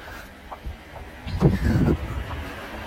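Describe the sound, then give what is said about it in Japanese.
A single car passes by outdoors on a quiet country road near a family home at around four o'clock, its rumble swelling to a brief peak and then fading away against a quiet, steady background. “ほら、車が今1台通りました。”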